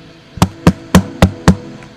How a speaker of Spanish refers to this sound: Yo estoy en la puerta y toco.